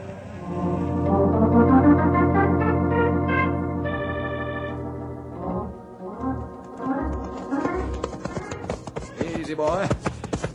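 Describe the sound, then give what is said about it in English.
Horse hooves clip-clop in a quick, steady rhythm that enters after a swell of orchestral music and grows louder toward the end, suggesting a horse being ridden at pace. “Oh, had plenty hard time keep up with Storm. He fast horse.”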